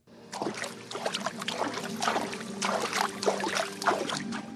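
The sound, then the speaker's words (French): Water splashing and sloshing in the indoor swimming pool of the Forum des Halles in Paris, a steady, irregular stream of soft wet slaps over a constant low hum; no one speaks. “Vous entendez le bruit de l'eau eh, eh oui, je suis à la piscine, c'est pas une blague.”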